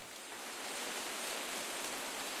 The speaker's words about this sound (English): Is that rain? I'm hearing rain. Is it raining? I, I hear the, the sound effect as well.